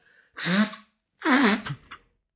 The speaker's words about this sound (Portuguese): E, e, já várias vezes, quando eu me assou, não sai quase nada e depois lá dentro faz tipo. E eu tipo, what the fuck, nariz? Como assim? Em italiano é naso, mas ok, vou-me assoar.